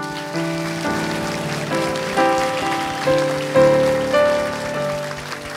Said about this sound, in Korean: 우리 하나님께 우리 영광의 박수 드릴까요?